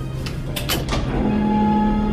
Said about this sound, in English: The door swung open, and we stepped inside.